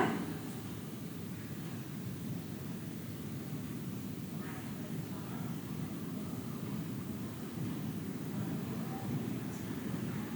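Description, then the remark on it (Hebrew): A steady, dense wash of street noise in the city centre of Jerusalem, low traffic rumble and a constant hum filling the background, with faint, indistinct murmurs of activity and no clear individual events. “בטח אם אני אנסה לחבר את זה לחוויה של מה זה לשבת פה, עכשיו, אז עבורנו זה במרכז העיר ירושלים, ו...”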